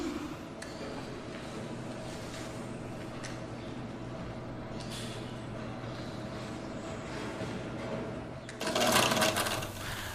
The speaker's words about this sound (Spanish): Ahora oímos aquí que se están fabricando las obleas.